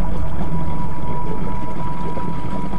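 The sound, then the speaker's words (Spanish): A motorbike or jet ski engine runs steadily on a cloudy day, a loud, constant low drone with a faint whine on top and no voices. “Ese día amaneció nublado, así que a falta de sol, podríamos estar toda la tarde en las motos.”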